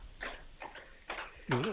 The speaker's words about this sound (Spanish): pasando un caballo por ahí cerca, ¿no?